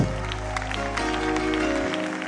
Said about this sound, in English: Celebrate Jesus with a clap.